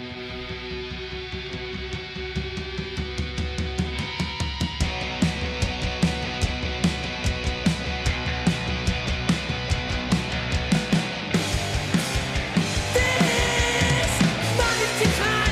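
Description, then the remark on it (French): An energetic British indie rock song with punk and Britpop touches plays loud and full, with driving drums, distorted guitars and a steady upbeat rhythm that builds and intensifies toward the end; no one talks over it. “jeune, tu vois, qui fait du rock cool. Euh, et on est à mi-chemin entre, il y a des aspects punk, euh, il y a des aspects Britpop”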